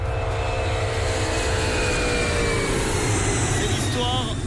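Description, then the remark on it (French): A loud, steady airplane engine roar drones continuously throughout on a Paris–Singapore flight, a dense rumbling hum with a thin mechanical whine running above it. “Le réseau des insolites qui nous emmène aujourd'hui dans un avion”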